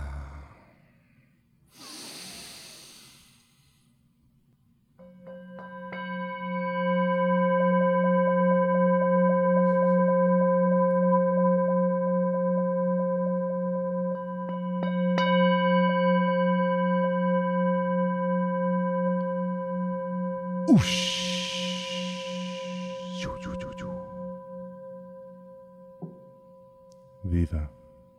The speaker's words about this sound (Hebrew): אוקיי, עכשיו אנחנו נעצום עיניים, ננשום נשימה, ואז כשאתה תיתן גונג, mm. התחלנו.